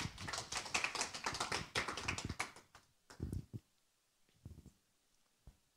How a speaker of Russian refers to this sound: Спасибо за внимание. Спасибо, ваши аплодисменты.